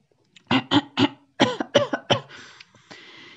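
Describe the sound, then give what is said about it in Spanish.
A series of sharp coughs in two quick bursts of three, followed by a raspy throat clearing that trails off into breathy noise. No speech. “El loro carraspeó, tosió y tomó unos sorbitos de agua”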